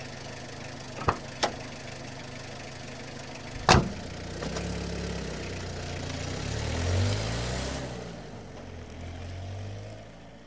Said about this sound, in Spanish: pasa, pasa un, jeep de montaña muy parecidos a los jeeps que tenemos en el eje cafetero en Colombia también. Y eh, haciéndome entender por señas, le digo al señor que por favor me lleve hasta el pueblo, hasta Pócara.